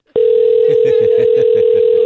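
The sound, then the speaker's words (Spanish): A loud, steady telephone dial tone starts abruptly after a brief click as the other party hangs up the phone, and holds unbroken to the end, with faint murmuring voices underneath. “una vez más, no me cuelgue el teléfono.”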